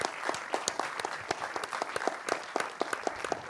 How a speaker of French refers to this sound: Vous pouvez applaudir.